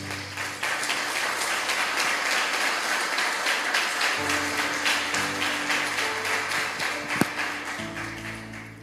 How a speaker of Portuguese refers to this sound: Uma salva de palmas para a palavra de Deus.